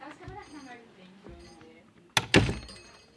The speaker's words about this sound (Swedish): Jag ska bara stänga dörren till, fris till frisersalongen. Jag stänger bara här lite.